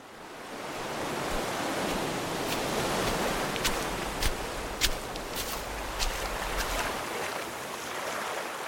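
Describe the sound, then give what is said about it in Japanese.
Waves wash steadily onto a beach in Israel in a broad, continuous roar of surf, with occasional sharper splashes and crackles of breaking water standing out. No voices. “中東と地中海の間に位置する国イスラエル波寄せる浜辺を眺めているとはじけた水しぶきからこの地で暮らす人が想像した短くも壮大な物語が聞こえてきます”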